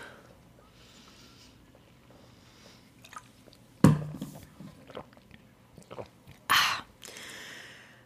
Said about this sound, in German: Erstmal alle für alle einen Schluck Wasser. Prost.